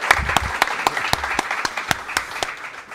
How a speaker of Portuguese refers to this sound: Uma salva de palmas